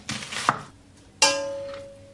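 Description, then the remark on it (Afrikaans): A knife slices food into near half-moon shapes: a brief scraping cut, a small click, then one sharp chop on a board that leaves a faint metallic ring fading out. No one speaks. “Ek nou opsny amper 'n half maan.”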